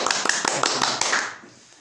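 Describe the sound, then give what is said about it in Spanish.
A short burst of hand clapping for a guest being introduced, a quick run of sharp claps lasting about a second before it fades out to near silence. “Un aplauso para él, por favor.”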